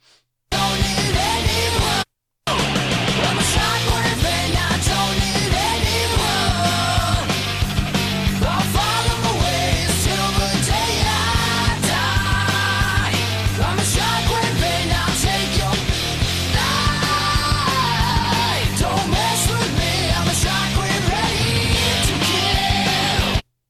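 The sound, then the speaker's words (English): A loud, dense heavy rock song with shouted vocals over driving guitars and drums, playing steadily after a brief cut-out near the start. “that's of course that's …, and the song is called …”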